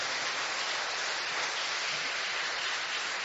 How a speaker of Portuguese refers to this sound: E se você puder colocar a sua Bíblia no colo e pegar as suas duas mãos e aplaudir o Rei dos Reis nessa noite.